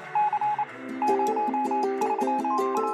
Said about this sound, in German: Oder durch Morsezeichen, und die waren immerhin schon elektrisch